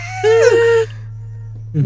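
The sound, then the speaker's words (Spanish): A single voice imitates children's panicked screaming, like the screams heard at Six Flags: one short, high, wavering shriek lasting about half a second, followed by near silence over a steady low hum. “cuando vamos saliendo, yo empiezo a escuchar a los gritos de los niños como si fuera Six Flags, así de esos gritos de.”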